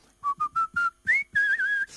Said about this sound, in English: Now I can whistle brilliantly. I can, I, I, can do a strong whistle, a soft whistle, a melodic whistle, a tuneless whistle.